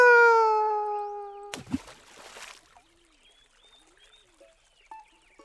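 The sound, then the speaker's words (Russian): A sustained sung note ends in a loud splash as a hedgehog falls into a river, followed by a soft, steady flow of river water carrying it along, with faint trickles and occasional light chirps. “Я упал в реку. Меня несет река.”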